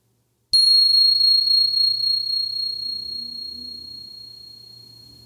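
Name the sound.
meditation bell ringing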